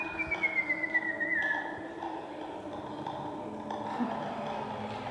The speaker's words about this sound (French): siffler et de voir ce que ça donne comme son